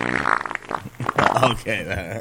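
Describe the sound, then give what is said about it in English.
A voice imitates a long fart, a drawn-out buzzing, sputtering raspberry lasting a couple of seconds, loud, with a brief pause partway through before the noise resumes. “It was a long fart.”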